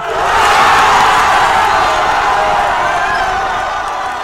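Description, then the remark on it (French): A large crowd cheers loudly, a sustained wall of shouting and hurrahs that swells early and holds steady for a few seconds without a break. “puis finit par annoncer qu'il démissionne. Hourra de la foule!”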